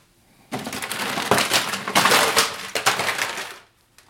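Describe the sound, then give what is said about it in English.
A loud, sustained clatter of plastic food containers, mostly takeout containers, tumbling out of a kitchen cabinet, lasting about three seconds with many overlapping bangs and rattles, then stopping abruptly. No one speaks. “Yep, yeah, that's the sound of all my plastic containers falling out of the kitchen cabinet where I store them.”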